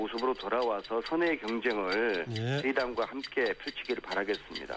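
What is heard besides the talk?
stopwatch ticking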